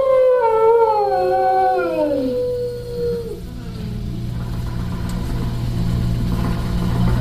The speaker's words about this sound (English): using that old exercise machine she rescued from the attic. It was all the rage in the 20s. Grandma, of course, had to have one. Didn't work then, doesn't work now. Consistent at least.